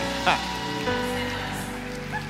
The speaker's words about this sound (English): I'm gonna need y'all to clap a little louder than that. Come on, man. Like, come on now.